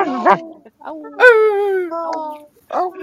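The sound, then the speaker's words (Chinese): People, asked at a show to make their own distinctive call for five seconds, imitate dogs with their voices: a short yelping bark, then a long drawn-out howl that slowly falls in pitch, and another bark-like yelp at the end. “以你们独特的叫声叫五秒钟”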